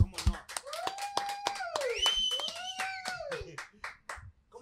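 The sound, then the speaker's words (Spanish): A small group claps in quick, uneven bursts of sharp slaps for several seconds, mixed with long, high sliding whoops and cheers from a few voices, applauding everyone present and Eufemia. “Así ah, que primero que nada, un aplauso a todos los que estamos aquí, a Eufemia, chingada”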